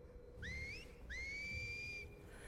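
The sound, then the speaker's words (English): Two whistled notes, a person's signal heard in the distance, each sliding upward and then holding steady, the second one longer, over a low background hum. “Uh, I, I assumed it was a whistle. Yeah, it was a whistle.”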